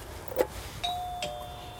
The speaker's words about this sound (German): So. Sie klingelt.